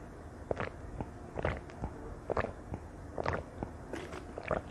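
Mouth sounds of someone drinking water, a series of soft wet gulps and swallows repeating at a steady pace, with no talking.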